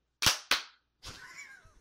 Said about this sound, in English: Are you ready? On three, we're both going to clap. Okay. One, two, three.